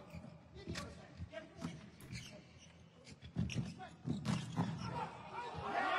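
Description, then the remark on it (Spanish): A volleyball arena crowd roars and cheers as Japan scores a point in a match against Venezuela, with an upbeat anime theme song buried beneath the noise; the din swells louder toward the end, with voices shouting throughout. “cada vez que hacía Punto Japón ponían el primer opening de Haikyuu”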